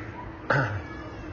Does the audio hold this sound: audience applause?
no